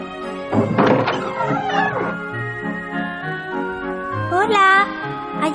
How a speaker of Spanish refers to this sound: Por tres veces llamó, pero al no obtener ninguna respuesta, decidió empujar la puerta y para su gran sorpresa comprobó que estaba abierta.